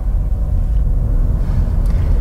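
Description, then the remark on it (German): A small 1-liter turbo three-cylinder car engine with 91 PS and 160 Nm runs with a steady, low droning hum, its deep rumble holding even and fairly loud throughout, with no one speaking. “Ich hätte ein hemmungsloses Röhren erwartet, aber der kleine Dreizylinder hat richtig Manieren.”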